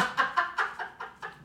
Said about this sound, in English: a dog barked and pissed the guests off